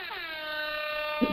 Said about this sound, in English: You know, you heard that bell, heard the air horn.